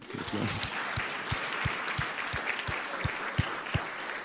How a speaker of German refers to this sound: meine Jugendkleingruppe von den Jüngeren ist auch mit dabei, deshalb lasst ihn uns auch mal einen fetten Applaus geben.